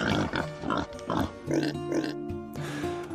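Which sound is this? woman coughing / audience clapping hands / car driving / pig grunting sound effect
pig grunting sound effect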